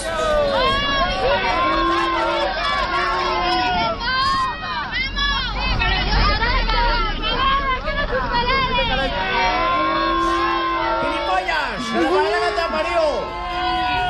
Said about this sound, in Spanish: muchos hinchas del club madrileño que ya hacen de todo para que el entrenador se sienta incómodo en la capital española. Esta mañana algunos esperaron al cargo del portugués que saliera del entrenamiento para silbarle y gritarle de todo.